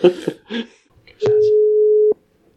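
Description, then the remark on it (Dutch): A single loud, steady, mid-pitched telephone ringing tone of an outgoing call placed by the hosts of Een Toontje Lager to the new director of the Nederlandse Bachvereniging, lasting just under a second and ending with a click, after a few brief murmured sounds. “Dat vraagt toch eventjes om een, eh, om een, om een belletje.”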